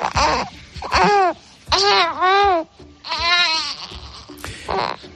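A young baby coos and squeals in a series of drawn-out, sing-song vocalizations with bright, wavering pitch, close by and fairly loud, separated by brief pauses.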